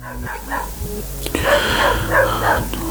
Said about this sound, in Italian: Sto sentendo il cane stavolta. Aspetta un secondo che si placa non si placa, ok?